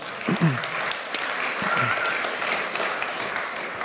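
An audience claps steadily for a few seconds, a dense, even patter of many hands, with a couple of short voices calling out over the applause.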